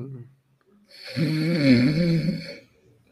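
A single loud, drawn-out snore from a sleeping person, with a rough, rattling rasp, lasting over a second, framed by brief quiet murmurs before and after.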